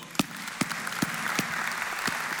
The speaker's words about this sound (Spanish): ¿Qué les parece si les damos un fuerte aplauso?